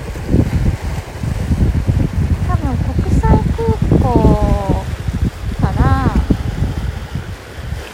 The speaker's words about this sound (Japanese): まあ、ちょっと風がすごいですね